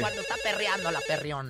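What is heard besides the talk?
telephone ringing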